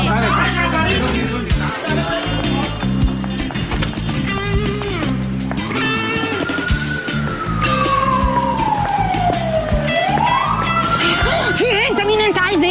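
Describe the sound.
A police car siren wails with a slow sweeping pitch, rising and falling over a dense, noisy background with voices talking.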